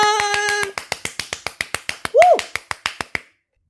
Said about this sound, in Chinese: 我来帮你拍手。心意好勇敢。